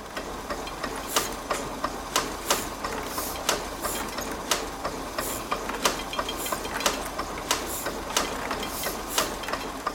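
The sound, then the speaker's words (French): Old 19th-century printing machines in a village typography workshop clatter steadily, with sharp percussive clacks landing at a roughly regular pace over a constant mechanical whir and rattle. No one speaks. “Euh, il y en avait plein, des vieilles machines euh, du 19e siècle, avec des bruits très mécaniques et très percussifs.”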